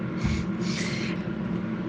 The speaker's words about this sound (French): Cette ventilation, je pense que vous l'entendez, euh, c'est le bruit de fond.